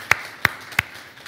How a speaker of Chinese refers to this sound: 我们再次给每一个服侍神的人，给他们大大掌声好吗？